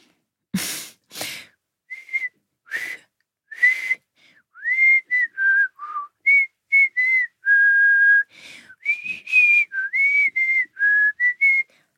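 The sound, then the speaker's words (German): A person whistles a short, bouncy jingle melody of clear, separate notes, with a few breathy intakes at the start and one longer held tone midway. No talking. “Dieses, also ich kann nicht so gut pfeifen, ich kann es mal versuchen.”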